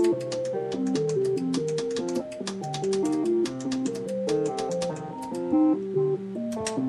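A steady sequence of synthesizer notes hopping between registers with octave jumps, each note starting with a crisp click and slightly out of tune. The sound is fairly loud, with no talking.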